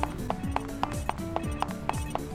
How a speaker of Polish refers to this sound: Aha, teraz będzie winda. Teraz musimy iść do windy, na drugie piętro się dostać. Okej, tam były jakieś drzwi wejściowe. A tutaj jest dźwięk windy.